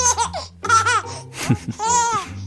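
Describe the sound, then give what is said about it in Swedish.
A small child laughs in several bright, breathy bursts, each with a high rising pitch and audible gasps between them, fairly loud with no talking. “Lyssna på ett litet barns skratt.”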